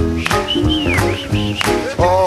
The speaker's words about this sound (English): And you know, friend, I was so excited. I just left and I started whistling to myself